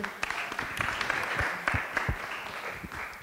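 A crowd applauds steadily, a dense wash of many hands clapping with a few sharper individual claps standing out, sustained at a fairly even level throughout.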